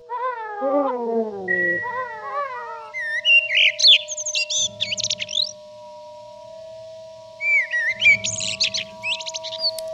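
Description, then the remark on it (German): A blackbird sings alone, starting with low, fluty warbling phrases and then switching to bursts of high, squeaky twittering, with short pauses between phrases and a faint steady hum underneath. “Seit zehn Jahren sterben Amseln in Deutschland durch einen Virus.”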